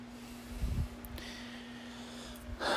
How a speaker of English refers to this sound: Or you can do some deep breathing from and uh, you can calm yourself down in seconds by doing some deep breathing exercises.